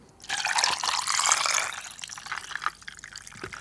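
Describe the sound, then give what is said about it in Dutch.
Water is poured into a glass holding a shot of rum, topping up the drink in one continuous, steady splashing stream, then thins to a lighter trickle with a few drips at the end. No one speaks. “En daarna pak je gewoon eh, de rest voor je aan met water.”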